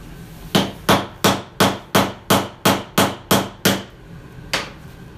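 A steady series of about ten sharp hammer blows, evenly spaced and fairly loud, followed by a short pause and one final strike. No one speaks.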